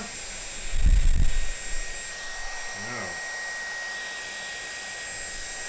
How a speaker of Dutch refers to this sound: En ik heb toevallig een föhn bij me. En dan gaan we met die föhn eventjes een beetje dat ijs doen.